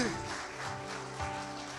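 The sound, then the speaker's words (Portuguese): A church audience applauds for Jesus in a steady, dense wash of clapping that fills the whole moment, with faint voices and a sustained tone murmuring underneath. “Se é para Jesus, você pode aplaudir melhor, meu irmão.”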